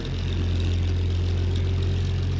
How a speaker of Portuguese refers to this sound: Fui interrompido pelo barulho alto dos motores que se aproximavam rápido. Faróis inundaram o acampamento com luzes.